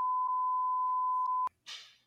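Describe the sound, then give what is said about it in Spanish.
A single loud, steady censor bleep holds one flat pitch for about a second and a half, then cuts off abruptly, followed by a short breathy burst of noise. “Ya me van a censurar.”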